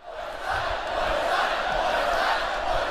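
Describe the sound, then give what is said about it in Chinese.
A large crowd of spectators boos loudly and continuously at the end of Inter Miami's exhibition football match in Hong Kong on 4 February, in which Messi did not play, demanding refunds; a dense, sustained roar of many voices with no single speaker standing out. “比赛结束时，不满的观众大声喝倒彩，要求退票。”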